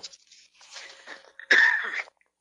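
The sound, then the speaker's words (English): A person coughs: a raspy, breathy stretch of throat noise builds up, then one loud, harsh burst breaks out and trails off into silence. No talking. “I must cough.”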